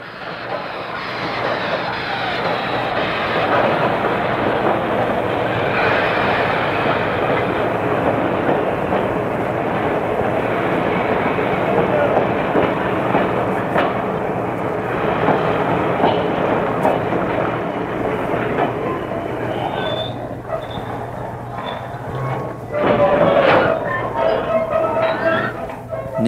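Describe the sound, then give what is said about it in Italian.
A freight train with people shut in a closed wagon rumbles steadily along the rails with a continuous clatter of wheels, then a brief metallic squeal rises near the end as the train stops. “Il treno si ferma.”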